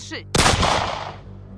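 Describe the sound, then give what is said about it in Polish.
A single loud gunshot, fired to shoot a padlock off a door, cracks out suddenly after a brief quiet moment, then rolls away in a long echoing tail that fades over about a second. “Huk poniósł się echem po okolicy. Kłódka upadła na chodnik z małym brzękiem.”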